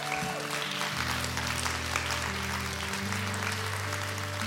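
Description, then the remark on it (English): An audience at Journey church applauds steadily to praise and celebrate God, a dense wash of clapping that holds at an even loudness throughout, with sustained low organ or keyboard tones shifting underneath. “Let's clap it out for him and let's celebrate.”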